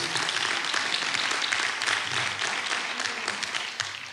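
An audience applauds steadily for about four seconds: dense, crackling clapping from many hands that stays loud throughout and eases slightly toward the end.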